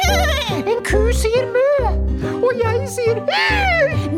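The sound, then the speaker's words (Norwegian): A horse neighs in several shaky, warbling whinnies that rise and fall, heard over a steady backing of music. “En hest sier”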